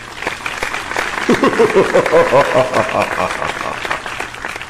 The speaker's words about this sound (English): Get that. Get the. Get the clap sound effect going. Oh man, that's so hard. To, that's so hard to find.